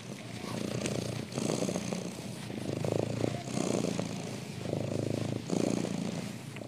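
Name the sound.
cat purring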